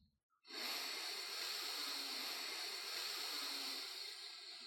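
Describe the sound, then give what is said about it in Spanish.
A long, steady breath drawn in through the nose during a guided breathing exercise, airy, sustained for about four seconds with an even hissing rush and no talking. “Tomamos aire por la nariz.”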